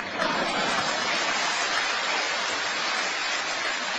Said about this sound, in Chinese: 你看嘛，你看嘛，这个鼓掌就跟高三那些同学一样，啊，高三那些同学，我就看那些男孩呢，就使劲这么干了啊，就使劲的。